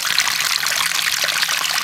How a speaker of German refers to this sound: Sie sitzt jetzt auf dem Klo. Ich habe den Eindruck, dass da jetzt ordentlich was rauskommt.